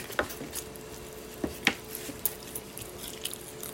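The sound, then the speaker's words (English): Bites and chewing of a burrito, with a handful of soft, squishy crunches at irregular intervals over a faint steady hum; no one speaks. “But I always hold the burrito up toward the screen to give her the first bite.”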